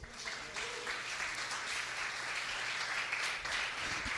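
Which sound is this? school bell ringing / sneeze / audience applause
audience applause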